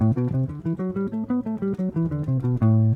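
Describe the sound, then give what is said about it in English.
A guitar runs through a scale, every note plucked separately in a steady, even rhythm, giving a crisp, detached sound. It is clear, with no talking over it. “So this way it doesn't sound too choppy when you're playing jazz, because if you pluck every note, it'll sound like this.”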